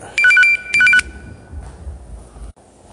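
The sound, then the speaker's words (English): A phone rings with an incoming call: two short bursts of a bright, warbling electronic ringtone, loud, followed by a quiet low rumble of room noise. “All right, sorry about that. I had a phone call.”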